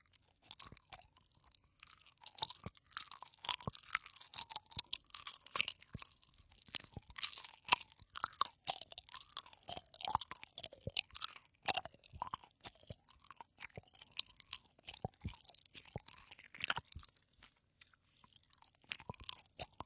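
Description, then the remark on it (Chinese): Soft gummy bear candy being chewed in a steady, squishy rhythm, with sticky, wet chewing sounds and occasional louder crunchy clicks, no talking throughout. “Q软~ 咀嚼音”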